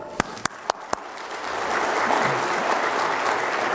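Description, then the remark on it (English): A few separate claps ring out sharply, then a crowd breaks into steady, full applause that keeps going at an even level, celebrating 200 people attending Sunday school that morning. “I think that's uh, worthy of a round of applause.”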